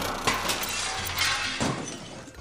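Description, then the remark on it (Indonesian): Plates fall and crash, shattering in a loud burst as a woman jumps onto a table, with sharp ceramic impacts near the start and again toward the end amid scattered clattering fragments. No one speaks. “Piring-piring pun berjatuhan dan pecah.”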